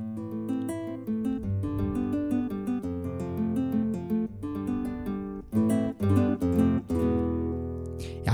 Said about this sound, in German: jetzt haben wir hier wieder eine akustische Gitarre. Keine Ahnung. Bisschen softer, glaube ich. Mal gucken, wie die klingt, wenn man die ganz soft spielt.